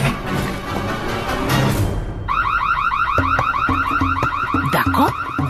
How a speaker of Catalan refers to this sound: sonar una sirena. Els pares s'havien deixat l'alarma encesa per si entrava algun lladre i pobre camell va despertar mig veïnat.